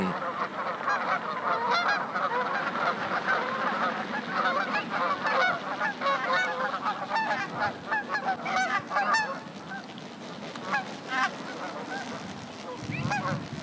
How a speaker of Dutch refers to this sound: maar dat zijn, het zijn allemaal ganzen. Maar ja, de ene gans is niet de andere gans.